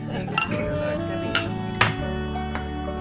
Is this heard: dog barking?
no